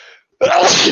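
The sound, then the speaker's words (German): A quick breathy intake, a brief pause, then a loud, explosive sneeze burst that lasts about half a second, with no talking around it. “Gesundheit.”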